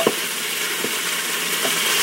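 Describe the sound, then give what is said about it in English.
Steady, crackling sizzle of meat browning in a hot aluminum pot, with a few soft scraping knocks of a spurtle turning the meat against the metal. “The the browning the, the part that's not browned is making a little sizzling noise.”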